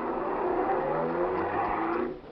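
A taxi's engine revs up and accelerates, its rising whine steady, then drops off abruptly at the end as the vehicle pulls away. No voices.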